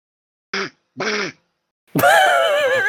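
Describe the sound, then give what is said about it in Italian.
A person imitates a duck as their answer buzzer in a quiz, with two short, nasal quacks in quick succession, followed by a longer, louder, wavering quack, clear with no other talk. “Eh, eh, rifacci sentire sto pulsante, per favore. Cos'è? È un papero.”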